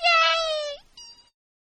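The speaker's cat meows twice: one long, steady, high-pitched meow that bends upward at the end, then a shorter, quieter one right after.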